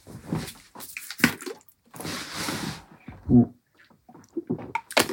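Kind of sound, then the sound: household object, getting water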